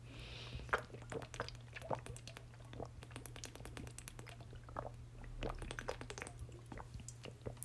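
Someone drinks water in small sips, with quiet wet clicks and swallows scattered irregularly over a faint steady hum; no one speaks.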